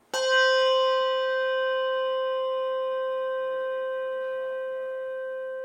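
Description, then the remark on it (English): Handbells are struck, a Schulmerich bell with its tang and a Malmark bell with the tang cut off, each clear bright ringing tone sustaining and slowly fading over several seconds with no other sounds. “This is a Schulmerich bell, the one with the tang. And this is a Malmark bell, Jake's new bell, with the tang cut off.”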